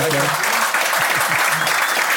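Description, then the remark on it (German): An audience claps steadily to give a returning guest a warm welcome back, a dense, even wash of applause that holds at a constant level throughout, with a few faint voice fragments briefly mixed in at the start. “Ähm, hoffe ich, dass wir es heute nochmal hingekriegt haben, mit dem Publikum dir ein schön warmes äh, Wiedersehen und Hallo zu geben.”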